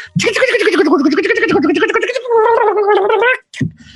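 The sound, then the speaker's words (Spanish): A voice imitates a cassette rewinding with a rapid, warbling tongue trill, a continuous fluttery buzz that wavers in pitch for about three seconds, then cuts off with a short trailing burst. “nos trae unos efectos bien perros con la lengua, algunos efectos muy perros.”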